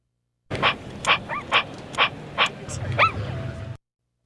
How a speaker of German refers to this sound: Ich denke mal ein Hund, ein elektronischer Hund. Genau, es ist tatsächlich ein kleiner Roboterhund, den gibt es noch gar nicht zu kaufen, der kommt von Sony.